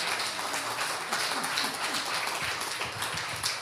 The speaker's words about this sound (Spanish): Hoy es el Día del Médico también. Felicidades a los hermanos doctores. También un aplauso para ellos.